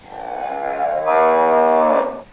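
A single long cow moo, loud and close, with a rich harmonic tone that rises in strength midway and holds for about two seconds before trailing off. No talking.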